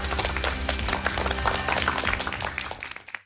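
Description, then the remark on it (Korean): A crowd of people applauds in thanks after a special lecture, dense overlapping claps forming a steady wash of sound for about three seconds before thinning out and fading at the end. “오늘 정말 특별한 강연을 해주신 김미영 교수님께 다시 한번 감사의 박수를 보내드립니다.”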